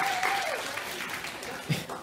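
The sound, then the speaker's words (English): An audience claps steadily for about two seconds for the speaker's wife, a dense, even patter of many hands at moderate volume, with a brief high whistle-like tone near the start. “Um, she deserves a much greater applause than that.”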